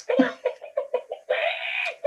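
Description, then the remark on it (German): A short chicken-clucking jingle introducing the segment "Hühnergezwitscher", international volleyball news: a quick run of clipped, rhythmic clucks, then one long drawn-out squawk and a final cluck, loud with no talking. “So, und jetzt kommt wieder die beliebte Rubrik, äh, Rubrik Hühnergezwitscher, internationale Volleyball-News.”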